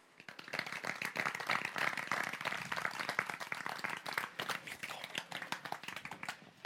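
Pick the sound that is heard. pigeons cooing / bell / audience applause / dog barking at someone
audience applause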